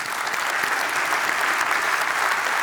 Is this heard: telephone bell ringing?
no